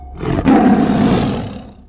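A Bombay tiger lets out a single deep, rumbling, angry roar, loud, swelling quickly and holding for over a second before fading away. No one speaks.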